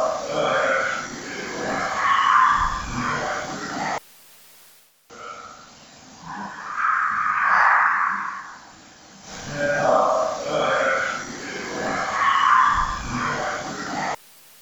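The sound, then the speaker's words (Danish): A murky, hissy EVP recording of a supposed ghost voice, made at Løvenholm: a low, gravelly voice-like utterance, almost a grunt or belch, played several times in a row, each pass a few seconds long, separated by a brief dropout. “Faktisk, vi kan lige prøve at tage den et par gange mere.”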